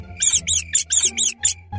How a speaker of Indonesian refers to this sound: Dia pun melihat ternyata ada seekor tikus di dalam kolong tempat tidur.